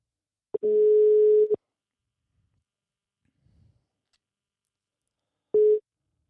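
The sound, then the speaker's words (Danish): A telephone ringback tone of an outgoing call to a man sounds twice: a steady one-second buzz, a long silent pause, then the start of a second ring that is cut short. A faint rustle falls in the gap. “Lad os ringe til ham med det samme og komme i gang med dagens afsnit.”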